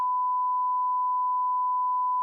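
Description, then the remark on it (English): A steady, unbroken censor bleep: one flat mid-pitched tone holding at even loudness for just over two seconds, clean and alone with no voices around it. “You can bleep all that out.”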